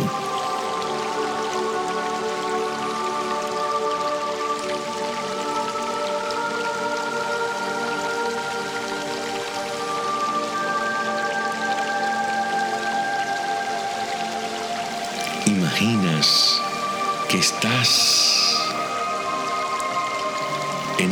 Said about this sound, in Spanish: Y escuchas el sonido del bosque, del tiempo, escuchas el sonido del silencio